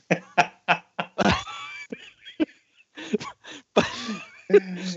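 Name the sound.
person imitating a cough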